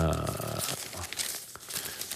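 Newspaper pages being leafed through while someone searches for a page: a run of crisp, papery rustles and crinkles over about two seconds, with a brief murmur of voice at the start.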